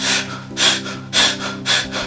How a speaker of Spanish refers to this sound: te hiperventilas, aguantas la respiración y después botas. Y después aguantas la respiración sin aire y después te oxigenas de nuevo por unos segundos